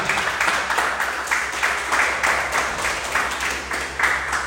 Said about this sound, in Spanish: Dame un aplauso a Dios.